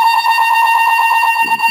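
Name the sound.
fire alarm going off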